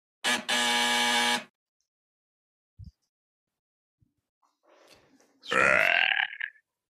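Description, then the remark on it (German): A voice imitates a doorbell ringing during a role-play with one loud, buzzy, steady drone lasting about a second. After a pause come a few faint clicks and rustles, then a short rising vocal sound. “Du klingelst. Ja. Warte, ich klingel.”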